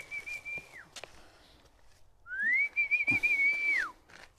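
A person whistles two calls to call the dog Bubil: a short steady note that drops off, then after a pause a longer one that slides up, wavers on a high pitch and falls away.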